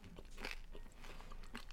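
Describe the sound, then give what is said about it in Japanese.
Crunching as someone bites and chews a semi-moist, soy-sauce-flavoured rice cracker, less wet than a nure senbei but softer than a hard one, with three or so crisp, moderately soft bursts spaced evenly over a quiet background and no talking. “だけど硬いせんべいほど乾いてなく、うん、うわ美味しいぬれせんべいちょうどいいねこれめっちゃ美味しい、うん、これサクサクもありつつぬれせんべいっぽいしっとりした生もあって”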